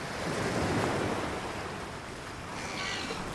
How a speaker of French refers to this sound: Pour célébrer ça, et parce que maman sait que j'adore le bruit des vagues, elle m'emmène à la plage.